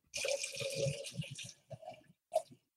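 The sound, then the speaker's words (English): Liquid is poured for about a second and a half, a steady splashing hiss, followed by a few brief gurgles and clinks as the pour tapers off. “Somebody's pouring a drink a drink.”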